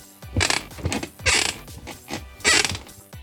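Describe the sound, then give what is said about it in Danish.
A wooden chair creaks in several drawn-out, rasping groans, fairly loud, with short pauses between them as if someone shifts their weight back and forth. “Velkommen til dig, Stol. Du er jo med mig i dag, fordi du er begyndt at knirke, og jeg vil gerne høre dig først.”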